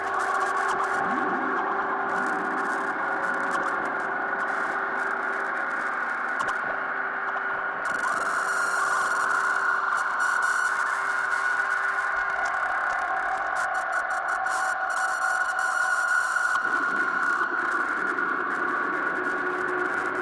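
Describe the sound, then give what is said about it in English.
A dense, glitchy modular synth drone, with frequency bands feeding the CV inputs of other bands and sent through a Mimeophone reverb delay with its halo all the way up, sustained tonal layers, crackling bursts and washes of reverberant echo, shifting in texture over time with no voices. “Uh, and then that's all just going to the Mimeophone as kind of a reverb delay as I've got the halo all the way up again.”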